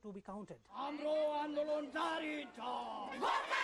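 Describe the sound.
A Gorkha street protest crowd at the daily morning demonstration in Darjeeling, India, standing in the rain, chants in unison, loud sustained voices rising and falling in shouted phrases, with brief breaks between each rhythmic slogan.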